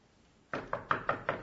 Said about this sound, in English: there's a knock at the door in Job chapter 38.